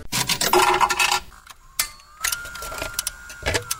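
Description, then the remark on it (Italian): A token clatters into a jukebox: a burst of metallic rattling and jingling, then a few sharp clicks and mechanical knocks with a faint whirring tone. No voices. “Vai con il gettone Federico, rock and roll!”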